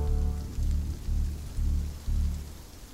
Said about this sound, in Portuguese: Tinha que ter um sinal de trânsito para disciplinar essas chuvas repentinas violentas.